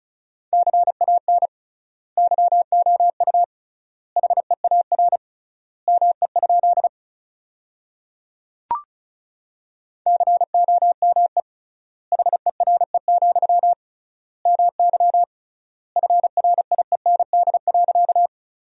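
Fast Morse code at 35 words per minute with triple word spacing, sending sentences built from the 300 most common words: a single steady mid-pitched tone keyed in quick bursts of dots and dashes, with long pauses between word groups and one sharp click midway.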